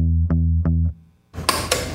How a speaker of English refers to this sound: Normal bass would sound like this